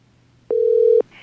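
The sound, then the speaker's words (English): A single steady telephone ringing tone as a call is placed to a guest of the Mystic Show sounds for about half a second, mid-pitched and clean with slight clicks at start and end, over a faint low hum, with no one talking. “I'm gonna give uh, I'm gonna I'm gonna give a call to our guest here”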